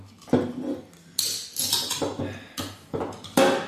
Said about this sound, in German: So, äh, Prost würde ich sagen, oder? Ja, ne? Man muss dreimal aufklopfen.